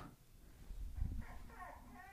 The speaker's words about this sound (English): There's a dog.